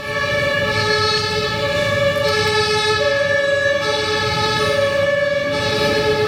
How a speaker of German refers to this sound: Man hört es schon, ich bin äh, heute unterwegs und äh, sitze zurzeit am kalten Bahnhof in Witten.